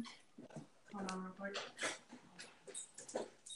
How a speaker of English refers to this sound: yes um yes I have a I have a four-legged Labrador retriever guide dog over here